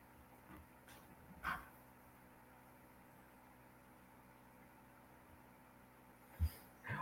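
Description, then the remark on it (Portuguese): A dog gives a few short, sharp barks, one early on and a quick pair near the end, over a low steady engine-like hum, with thin whining between, in a home. “Eu tô desligando o microfone e tô esquecendo que barulho do cachorro, tô em casa.”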